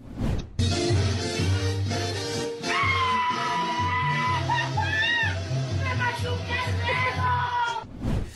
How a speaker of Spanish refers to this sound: Amigos, amé el grito, la verdad es que sí parecía un grito de fiesta del 16 de septiembre, pero no, le estaban machucando el dedo al pobre.